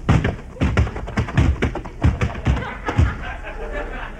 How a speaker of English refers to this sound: you sure tackled him hard. His eyes are closed. Yeah, and you knocked his helmet off.